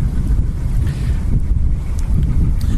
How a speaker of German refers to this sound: Man hört, es ist momentan ein bisschen windig am Mondsee. Wir sitzen da jetzt sozusagen gleich am Strand.